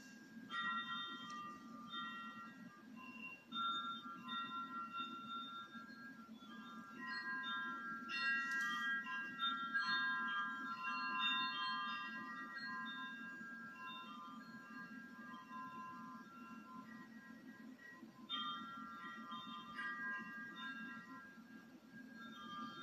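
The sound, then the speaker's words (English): Wind chimes ring continuously over a steady low rush of wind as rain begins, their overlapping metallic tones swelling and fading as gusts change, clear throughout. “Listen to these wind chimes while the wind changes and the rain.”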